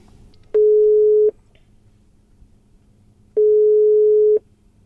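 Two long, steady electronic ringing tones of a phone call placed from a car stuck in a traffic jam between Rosenheim and Munich, each lasting under a second, separated by a pause of about two seconds, loud and clear over faint background hum.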